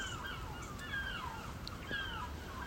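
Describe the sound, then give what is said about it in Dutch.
Several seagulls scream and squawk high in the sky in harsh, descending calls that overlap one another, fairly loud, over a steady outdoor background rumble early in the morning around 8 a.m., with no talking. “Behalve de meeuwen die schreeuwen.”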